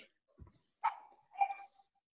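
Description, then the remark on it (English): A dog barks twice in quick succession, sharp, after a soft low thump. No one is talking; the barks stand alone against a quiet background. “I got distracted the last 20 seconds because there's a bark there's a barking sound in the back of your oh, fucking oh, screen.”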